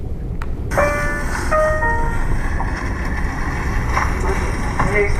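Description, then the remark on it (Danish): A train rolls into Copenhagen Central Station, Denmark, continuing on to Copenhagen Airport, Kastrup, with a loud, steady low rumble, while high metallic squeals from the wheels and brakes come and go throughout. “Station Københavns Hovedbanegård. Toget fortsætter til Københavns Lufthavn Kastrup.”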